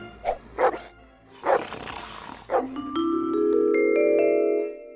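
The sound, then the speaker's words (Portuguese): A dog gives several loud, rough barks and a snarling growl, then a rising sustained musical tone takes over until the end. No one speaks. “Vou dar um pedaço de carne para esse cachorro, para ele não me seguir.”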